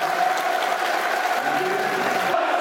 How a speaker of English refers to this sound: Great performance by Andreas Voglsammer. Good applause for the man.